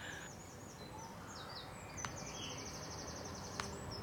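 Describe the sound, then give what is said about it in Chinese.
A small unseen bird chirps outside a window in Switzerland in spring, on a day of poor weather, a run of high, thin twittering notes over a low steady hiss, with two brief sharp clicks partway through and no one speaking. “哎，刚刚是有小鸟叫， 我有听到啊， 谁在窗户旁边啊？”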